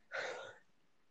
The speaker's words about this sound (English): Oh, I just took some sip, of tea. Sip of tea.